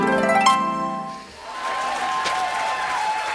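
A brief bright musical sting opens a quiz game's applause after a contestant wins the first round; a steady wash of audience applause follows, many hands clapping densely and evenly at moderate loudness until the end.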